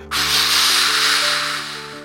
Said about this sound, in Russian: Стену окружал глубокий ров, на дне которого ползали 3200 ядовитых змей. Когда кого-нибудь по узкому мостику вели в тюрьму, змеи шипели, как сало на сковородке.